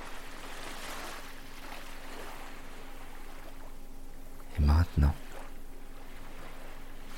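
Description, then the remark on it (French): A soft, steady wash of sea waves on sand fills the background without pause, with a calm voice briefly speaking a short phrase near the middle. “vous vous mettez à écouter les vagues de la mer. Les vagues qui viennent et repartent sur le sable.”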